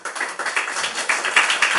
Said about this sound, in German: Applaus